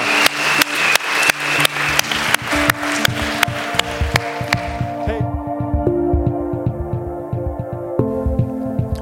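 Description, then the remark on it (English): Steady, rhythmic hand claps at a church service, applauding six people who raised their hands, ring out in an even beat for several seconds, then give way to sustained keyboard-like music tones that carry on with a quieter pulse. “Can we give these six individuals that raised their hand a huge round of applause?”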